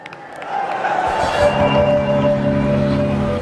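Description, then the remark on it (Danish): A large crowd at a Mélenchon hologram political rally shouts and cheers in a loud, continuous roar that swells after a moment, with a steady humming tone running underneath the noise. “Og så råbte folk og skreg, som om, at øh, han faktisk skulle høre dem.”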